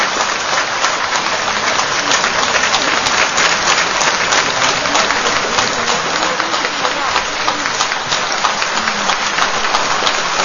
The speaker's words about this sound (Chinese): 现在就让我们以热烈的掌声，有请指挥汤慕罕先生，有请。 Welcome to the stage, Mr. Thomas.